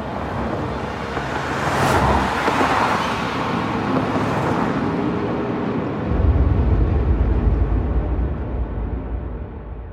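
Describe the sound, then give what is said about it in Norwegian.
Black car engines start and rev in the evening darkness, with a broad roar of cars pulling out of a square one by one and spreading through the city, and a deeper engine drone swelling near the end; no one speaks. “Lyden av biler som startet, skar gjennom kveldsmørket.”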